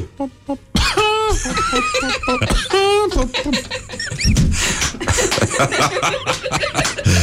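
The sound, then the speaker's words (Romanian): A person imitates a chicken coughing with a few squawky, rasping bursts, followed by laughter and overlapping voices. “Am făcut am tușit, tușit ca, o găină, da.”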